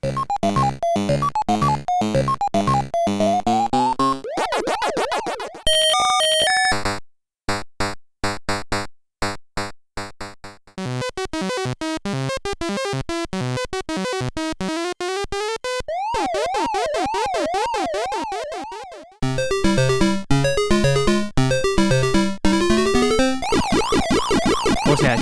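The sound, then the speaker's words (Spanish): Chiptune soundtracks of one game play back to back: the 1980 arcade original, the 1982 Atari 2600 conversion, the 1983 Commodore 64 version and the 1984 Nintendo Entertainment System version. Buzzy square-wave melodies, warbling sirens and bleeping arpeggios, loud and continuous with brief gaps between segments and no talking. “Fijaos la comparativa aquí entre primero la arcade de 1980, después Atari 2600, la conversión de 1982, después la de Commodore 64, que es del 83, y finalmente la de Nintendo Entertainment System, que es del año 1984.”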